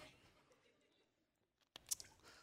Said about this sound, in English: This, I'm going to take a little sip of this water. Hold on.